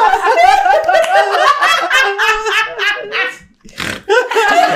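A dog barks and yaps in a quick, continuous run of high, strained vocal bursts, pausing briefly near the end before starting up again.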